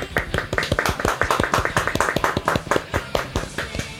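A steady round of hand clapping from a small group, dense overlapping claps continuing at an even pace for several seconds, moderately loud, with no talking over it.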